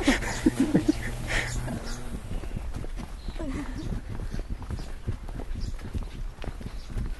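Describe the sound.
Steady hoof clops of horses walking on a hard surface behind a churchyard, irregular taps throughout, with some low voices and rustling mixed in.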